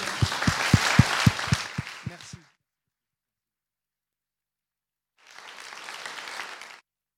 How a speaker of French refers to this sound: Je propose de vous applaudir sur cette conclusion.